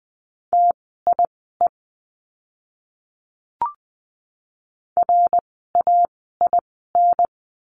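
Morse code practice words for the letter R keyed at a brisk 20 words per minute: a steady mid-pitched tone in crisp short dits and longer dahs, grouped with pauses, plus one brief click midway and no voices.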